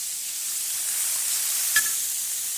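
Steady, bright sizzling of food frying in ordinary vegetable oil in a very hot, huge pot, a continuous hissing wash with one brief scrape as a long-handled cooking spoon stirs through it near the end to keep it from burning. No voices.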